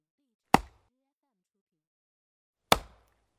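axe chopping wood

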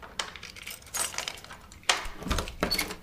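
door opening

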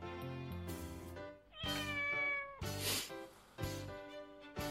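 cat meowing

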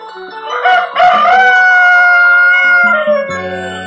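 rooster crowing

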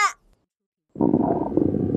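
stomach rumbling from hunger

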